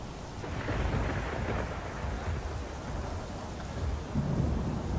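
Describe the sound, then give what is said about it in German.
A raging storm fills the scene with steady, heavy rain and deep rolling thunder rumbling underneath, loud and continuous throughout with swelling gusts and no voices. “Der Sturm, der hört nicht auf. Der ist weiter am Toben. Das Wasser ist am Spritze.”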